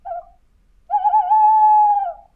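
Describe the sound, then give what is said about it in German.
A small owl (a Kauz) sitting at the edge of a path calls: a brief short note, then after a pause a longer, drawn-out tonal hoot that holds steady before fading, clear against a quiet background with no talking. “Was für ein Tier könnte das gewesen sein? Ich finde, es hat sich angehört wie eine Eule.”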